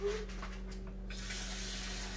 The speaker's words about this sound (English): Hear the water? Yeah, that's water.